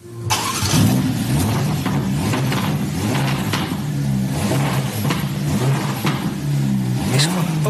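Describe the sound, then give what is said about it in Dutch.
A Ferrari Roma sports car engine revs loudly, its deep growl climbing and dropping in pitch through several throttle blips, with a sharp rising rev near the end and no one talking. “Hè, dus- even luisteren naar die Roma.”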